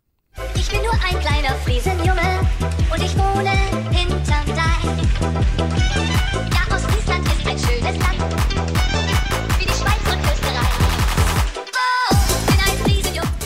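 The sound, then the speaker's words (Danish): A techno-rap remix plays loudly and steadily, with a pounding, rapid electronic beat and dense rhythmic hits, briefly cutting out near the end before the track resumes. “Øh, ja, det, en lidt sjov øh, blanding af techno og rap.”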